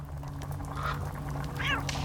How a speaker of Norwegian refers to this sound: Og veit du hva? En fugl. En hvit ravn driver og hopper omkring i rommet.